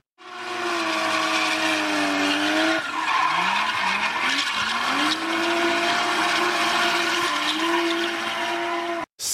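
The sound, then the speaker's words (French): A loud, sustained screech of car tires skidding, wavering in pitch for several seconds with a brief dip midway, then cutting off abruptly at the end. No one speaks. “Attention au dérapage, si vous entendez euh, retentir ce bruit,”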